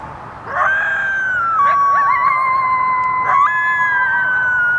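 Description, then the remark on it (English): Several coyotes howl together in long, overlapping wavering notes that slide up and down, a steady, fairly loud chorus that carries on for the whole stretch with no talking. “And just like your dog, sing along to sirens.”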